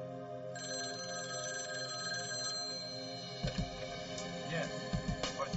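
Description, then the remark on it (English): A telephone rings steadily with a sustained, bright electronic trill, fairly loud, as kidnappers call three days after an abduction; after a few seconds, low rumbling movement and faint voices join underneath the ringing. “As promised, the kidnappers called three days after the abduction.”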